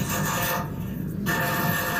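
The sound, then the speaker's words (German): A steady rasping hiss of welding runs without a break, briefly thinning in the upper range midway before returning full and harsh. No one speaks. “Wir sind fast fertig mit Schweißen.”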